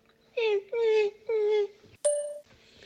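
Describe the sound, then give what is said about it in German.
A person imitates a whimpering dog with four short, whiny yelps. The first three fall in pitch at a steady pace, and the last is a sharper, brighter yelp after a brief pause. “Ich mache dann auch so Geräusche wie so ein Hund.”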